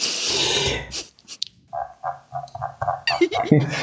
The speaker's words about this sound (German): Ähm, mein äh, Mausrad macht wohl angeblich das Geräusch einer Ente. Also ich finde, es klingt original wie eine Ente.